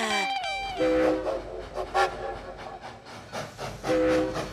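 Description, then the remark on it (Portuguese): A train rumbles along the tracks with a steady rhythmic clatter, opening with a sharp whistle and sounding a sustained horn tone twice more as it rolls past. “A aventura começou logo no comboio.”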